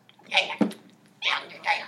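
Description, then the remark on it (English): A person imitates a dolphin with squeaky, high-pitched chirping sounds in three short bursts, a brief click between the first two, fairly loud. “Make your what's your best dolphin noise?”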